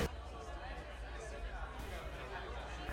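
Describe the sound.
Steady crowd chatter in a tavern's taproom, a low murmur of many overlapping voices with occasional clinks, a busy background hum at moderate volume.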